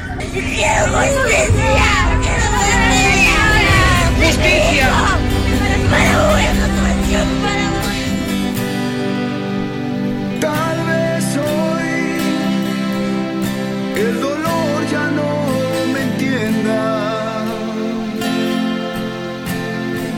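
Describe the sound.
A loud rock song by a Peruvian rock band plays throughout, opening with a dense, noisy burst like a crowd before settling into steady sustained chords and singing voices at a constant volume.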